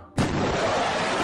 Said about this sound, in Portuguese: Quando de repente ouvi um barulho dentro da minha cabeça, semelhante a um avião que quebra a barreira do som e deste barulho